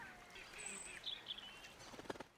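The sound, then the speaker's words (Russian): Faint ducks quacking a few times by a river where they are being fed, mixed with light bird chirps over a soft outdoor background. “Переходим дорогу и идем налево в обратную сторону по декабристов, чтобы спуститься вниз к реке и закончить нашу прогулку кормлением уточек.”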